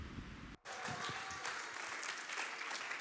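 An audience breaks into sustained applause after a brief pause, many hands clapping in a dense, steady patter that stays loud for several seconds.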